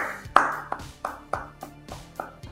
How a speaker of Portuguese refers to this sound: Palmas para Adam Stenavich, né, nosso coach né, da, da linha ofensiva, porque o trabalho que ele faz, cara, realmente é, de, é digno de aplauso, de tirar o chapéu.